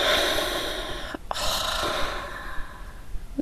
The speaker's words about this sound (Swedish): Att, att känna när jag lägger händerna på mitt hjärta så tar jag ett djupt andetag. Och så andas jag ut